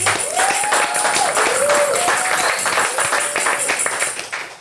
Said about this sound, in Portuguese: Vamos pedir uma salva de palmas para ele